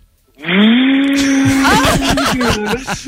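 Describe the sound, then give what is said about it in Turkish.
A voice imitates a vacuum cleaner with a loud, steady droning hum that holds for a few seconds, then turns rougher and sputters in uneven pulses near the end. “Benim sesim pazar günü çalışsam elektrik süpürgesi sesi olurdu abi.”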